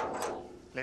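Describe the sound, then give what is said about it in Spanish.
A secret door behind a shop, leading under a church to Templar vaults, grinds open with a short scraping rumble lasting under a second, followed at the very end by a brief burst of someone's voice. “Sí, por esta puerta entramos a otro mundo.”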